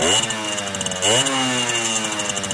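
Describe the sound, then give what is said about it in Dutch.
A two-stroke moped engine, officially a moped but bearing a motorcycle licence plate, runs with a loud, raspy buzz, idling steadily before briefly revving up midway and settling to a slightly higher drone. No one speaks. “Toen jullie hier binnenkwamen, hier staat toevallig eh, ook een tweetakt.”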